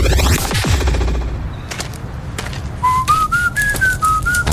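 Someone whistles a short tune of steady, held notes that step up and then drift back down, following a loud burst of noisy clatter, with sharp cracks continuing underneath.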